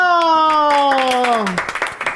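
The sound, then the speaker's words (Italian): A long, falling vocal cry gives way to a short burst of audience applause during a radio phone-in quiz, sharp, closely spaced claps rising loudly for the final half second. “Un applauso!”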